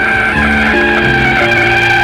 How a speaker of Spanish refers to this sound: Pero, de repente, sin saber por qué otro automóvil se cruzó abruptamente en el camino. El taxista, para no causar una tragedia, tuvo que girar el auto y frenar abruptamente.